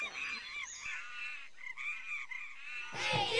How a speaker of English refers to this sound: Here at last, the land of monkeys. See them gather all around. Sharp-eyed faces in the treetop. Listen to their raucous